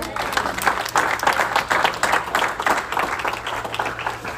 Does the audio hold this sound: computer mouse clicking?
no